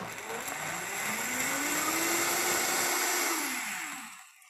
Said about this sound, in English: So I'll add a little bit, just dump it in, put the blender can, the lid back on and run it.